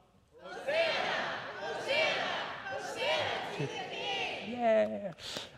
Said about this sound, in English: So I'm going to say to you, here comes Jesus riding on a donkey. I want you to shout as if you were there seeing Jesus, your king, coming to you, okay? Here comes Jesus riding on a donkey.